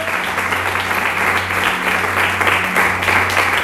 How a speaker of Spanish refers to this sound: Al que te pido que le des un fuerte aplauso en esta mañana, por favor.